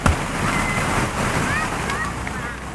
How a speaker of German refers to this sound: Es ist das Bällebad, auch Kugelbad oder Bälleparadies genannt.